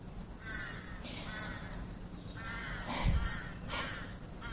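crow cawing

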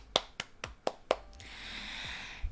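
loud clapping

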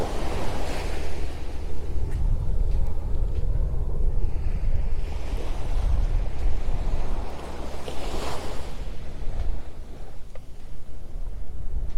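ocean waves

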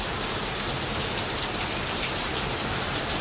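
heavy rain

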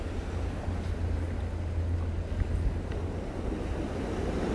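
ocean waves

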